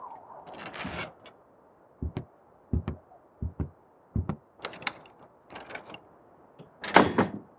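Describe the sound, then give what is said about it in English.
A door is unlocked and opened: a scrape and rattle, then a series of sharp metallic clicks and clunks from the lock, ending in a louder burst as the door swings open. “open the door.”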